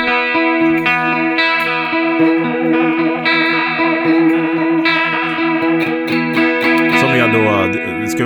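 Electric guitar playing sustained chords through a Leslie rotary speaker effect switched on with a momentary switch, the effect ramping up and down, the tone swirling and warbling steadily at a strong, even level, with a bending, sweeping flourish near the end.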